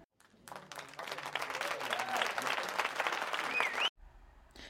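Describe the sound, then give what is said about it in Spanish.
A burst of applause from a crowd, dense steady clapping with a few whoops and whistles rising above it, lasting about four seconds before cutting off abruptly. “Bueno, ahí están los aplausos.”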